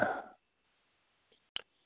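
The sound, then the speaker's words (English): A single short, breathy sneeze bursts out at the start, followed by near silence and one brief sharp click; no talking. “Bless you”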